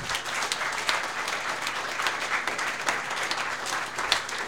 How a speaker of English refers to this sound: let's give him a round of applause, shall we?